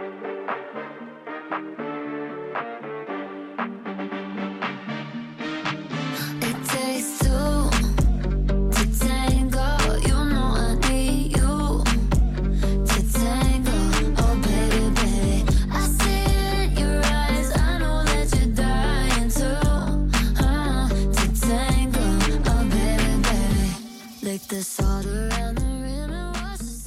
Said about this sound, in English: And also, my apologies if the quality isn't amazing, but I do love this song and I want you to hear it.